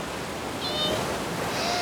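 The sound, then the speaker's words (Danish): Waves rushing and foaming against a pirate ship's hull beside rocks surrounding an island, a steady, dense seething wash that stays fairly loud throughout the short stretch, with no voices. “Men øen er omringet af store, bolsjestribede klipper, og bølgerne bruser og skummer som nisseøl imod piratskibet.”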